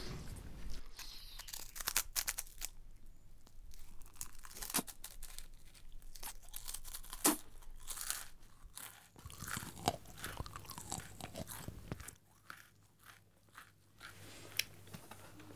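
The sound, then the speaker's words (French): Crunchy food being bitten and chewed: a steady run of crisp, crackling crunches with sharper bites standing out, loud throughout, with no talking over it. “En dehors de parler, qu'est-ce que tu fais avec ta bouche Manger.”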